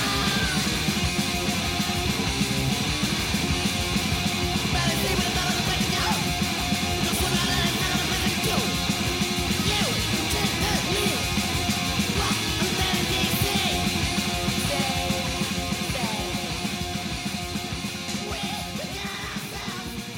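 A fast, loud hardcore punk song plays throughout, with distorted guitars, pounding rapid drums and shouted vocals forming a dense, constant wall of sound.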